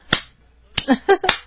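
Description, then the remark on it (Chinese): Sparse, half-hearted applause from a small audience of few people in a live broadcast studio during a New Year show: just three sharp, isolated hand claps spaced irregularly, with a brief murmur of voices between the last two. “呃，不好意思， 掌声 我 不太热烈 屋屋比较少，屋屋人人比较少，不好意思啊。”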